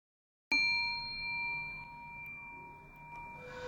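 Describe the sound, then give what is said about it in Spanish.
A single gong strike in a meditation recording rings out sharply, then sustains with a steady, shimmering metallic hum of layered tones that slowly fades, heard alone with no voices. “Al finalizar la meditación, voy a tocar el gong y a dejar tres minutos de silencio, después de los cuales voy a volver a tocar el gong y terminar el audio.”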